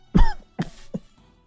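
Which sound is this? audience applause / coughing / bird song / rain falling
coughing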